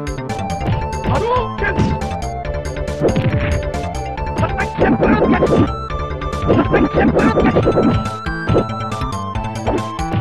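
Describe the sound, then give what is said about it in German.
Rapid, loud fighting video game combat sound effects from a normal fight: repeated punchy smacks and crashes in quick bursts over tinny game music, with short digitized voice shouts mixed in, all busy. “Wir können ja hier an der Stelle einfach mal reinhören, wie so ein normaler Kampf bei Street Fighter 2 klingt.”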